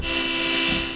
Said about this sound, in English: in this case, we're going to do a synthesizer chord, which is going to sound like this, right?